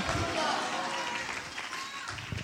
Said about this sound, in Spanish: Alguien puede dar un aplauso fuerte a ese Dios poderoso que nunca te dejará, que nunca te abandonará.